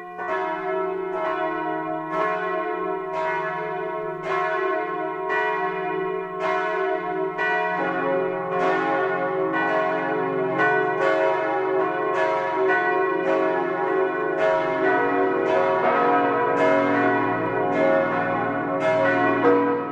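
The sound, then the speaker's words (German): Church bells of the basilica in Füssen, Swabia, Bavaria, ring out in a full 12 o'clock midday peal, overlapping strikes repeating steadily and blending into a rich, continuous wash of loud, resonant tones with no voices present. “Das Mittagsläuten kommt heute aus Füssen in Schwaben.”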